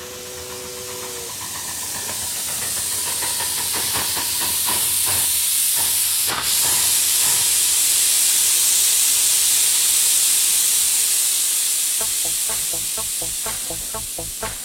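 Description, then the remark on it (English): A steam train hisses loudly as it pulls in, a steady wash of steam under rhythmic chuffs that swell, then settle into a quicker, tighter puffing near the end. “The train is coming!”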